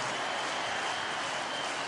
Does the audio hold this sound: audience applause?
yes